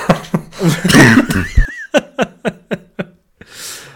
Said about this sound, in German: Entschuldige, jetzt habe ich hier direkt einen Hustenanfall getriggert. Ach, alles gut, das, das könnte noch öfter vorkommen heute, aber das macht ja nichts.